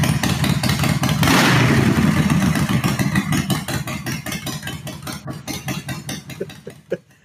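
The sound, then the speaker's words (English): A motorcycle engine idles with a fast, throbbing rumble, surges into a loud rev, then settles back to a steady chugging idle that fades slightly toward the end. No one speaks. “Buy yourself a motorcycle.”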